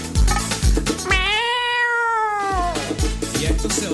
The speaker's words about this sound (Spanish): Le sale un gato, ¿qué onda? Comienzan unos gatos ahí, con los maullidos.